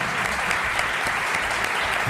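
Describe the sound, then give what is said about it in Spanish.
Steady applause from a crowd fills the whole stretch, a dense, even wash of clapping at moderate volume with no pauses or voices standing out. “Dale un aplauso”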